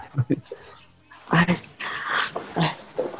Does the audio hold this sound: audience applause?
no